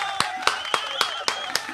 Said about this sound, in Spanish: Un aplauso para una fan más del programa. ¡Bravo!